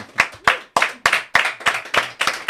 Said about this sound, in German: Da könnt ihr ruhig mal applaudieren, weil wir haben auch Publikum heute da.